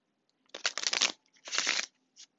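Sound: shuffling tarot cards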